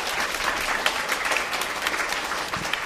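An audience claps for Jesus in sustained, dense applause, a steady crackling wash of many hands with no pauses, fairly loud throughout.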